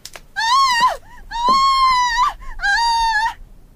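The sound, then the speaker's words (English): A young woman screams three times after going into a house, in long, piercing, high-pitched cries, loud, with short gasping pauses between each scream and no other voices. “She went into the house and at once started screaming.”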